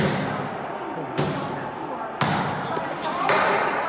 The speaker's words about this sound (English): They were literally banging on the doors of Congress.